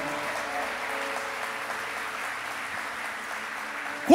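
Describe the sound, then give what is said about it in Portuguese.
A crowd at a Christian sermon applauds God steadily, a dense wash of clapping from many hands that holds at an even level throughout, with a brief voice rising sharply at the very end. “Aplauda Ele se você crê nisso nesse dia comigo.”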